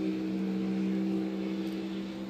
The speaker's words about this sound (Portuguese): Moto filha da puta.